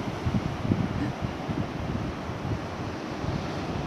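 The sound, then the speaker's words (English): Steady ocean surf washing against the shore, recorded from the shoreline, a continuous low rushing roar with gentle surges, mixed with some wind buffeting the microphone and no talking. “I actually did a recording closer to the water, but the waves were a little bit loud and I thought you might struggle to hear saying.”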